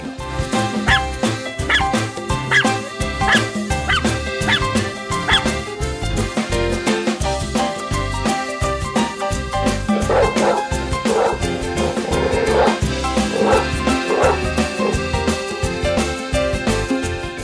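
A dog barks repeatedly in quick, loud bursts, mixed with yips and whimpering whines, over a dense, steady sound bed with no voices.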